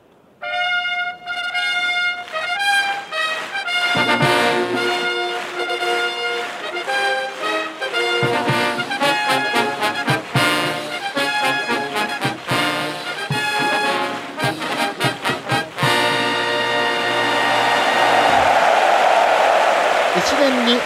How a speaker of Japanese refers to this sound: 第一度流れる宝塚記念のファンファーレに大きな拍手が湧いた阪神競馬場です